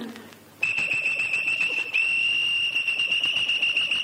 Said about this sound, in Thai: ไม่ใช่ไอศตรีมจ้า นกหวีด อ๋อไหนอ้ายลองเป่านกหวีดให้น้องฟังได้บ่